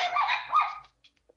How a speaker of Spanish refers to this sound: Perdón. Falla técnica con el perrito ladrador.